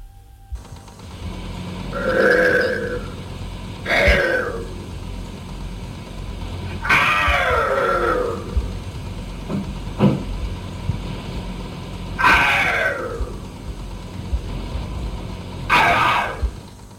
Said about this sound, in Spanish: Vamos a escuchar un último corte, que es quizá uno de los más impactantes, cuando ya al cabo de los meses la niña prácticamente como si estuviera poseída, llega a producir una serie de alaridos que ponen la piel de gallina.